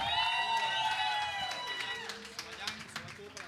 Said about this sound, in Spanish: así que un aplauso para ellos, por favor.